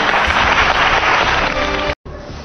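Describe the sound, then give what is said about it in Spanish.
An audience bursts into loud, dense applause, a steady wash of many hands clapping that cuts out abruptly for a split second before resuming just as strongly. “Un aplauso para él.”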